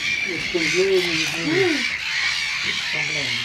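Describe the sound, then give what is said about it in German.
Agitated waterbird calls ring out in quick, harsh bursts, a longer flurry followed by a brief pause and a few more cries, over a steady outdoor hiss, as the birds all take flight from a small breeding island. “Es wird laut. Irgendetwas scheint die ansonsten entspannten Vögel zu irritieren, zu verunsichern.”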